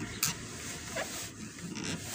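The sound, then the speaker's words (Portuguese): A broad rush of splashing water, thrown by a man, hits a car, with a sharp splash near the start and further bursts toward the end, over a steady background hiss. No one speaks. “O cara jogou uma porra de uma água no carro aqui.”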